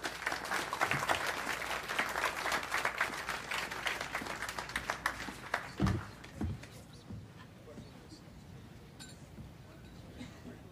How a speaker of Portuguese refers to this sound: Ah, por favor, vamos aplaudir Arthur Fleck, pessoal. Arthur Fleck.